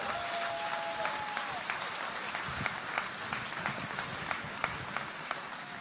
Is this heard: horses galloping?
no